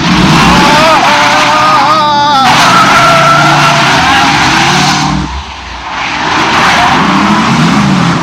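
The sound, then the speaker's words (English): A car engine roars and revs hard, its pitch climbing as the vehicle speeds away, with a brief tire screech mixed into the loud, continuous motor noise. “You are liable for any damages to the vehicle, so please stop the car, slow, or at least slow down.”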